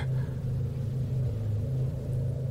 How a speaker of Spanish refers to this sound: Con los primeros rayos del sol llegó un sonido a lo lejos. Un motor. Era el sonido de un carro. Un carro viejo que hacía mucho ruido. Y lo pude escuchar muy a lo lejos porque aquellas montañas trasladaban el eco a kilómetros.